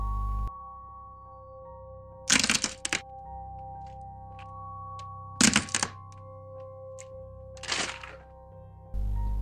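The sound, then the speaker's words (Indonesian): Three slow, crisp crunching steps, as if someone treads on grass, come a few seconds apart over a steady low electrical hum. Nobody speaks. “suaranya kayak orang yang nginjek rumput tapi nggak ada bayangan orang sama sekali”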